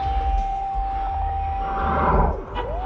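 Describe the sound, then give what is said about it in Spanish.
A faint, thin high-pitched ringing tone holds steady for the whole clip, sitting over a low, rumbling background noise with no voices. “Ahora, un mínimo pitido me acompaña.”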